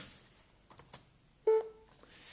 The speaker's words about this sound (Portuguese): Ora, tenho que fazer insert barra de espaço até ouvir um bip.